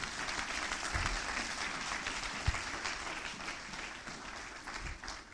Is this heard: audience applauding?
yes